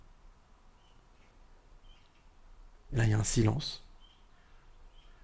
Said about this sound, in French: Voilà, les oiseaux.